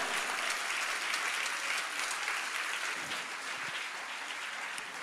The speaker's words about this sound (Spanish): Si usted entiende esto, déle un aplauso al Señor.